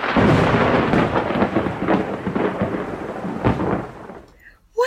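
A loud thunderstorm: steady, heavy rain with deep rolling thunder rumbling through, then fading toward the end before a brief unrelated sound.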